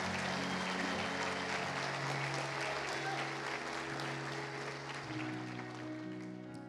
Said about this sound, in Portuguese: Dê uma salva de palmas àquele que está vivo, aleluia!